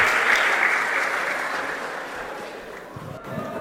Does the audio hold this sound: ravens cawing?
no